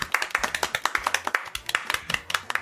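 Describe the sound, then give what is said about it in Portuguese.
A quick burst of hand clapping, many sharp claps overlapping in an uneven, rapid patter that stays fairly loud and steady for a couple of seconds. “Palmas”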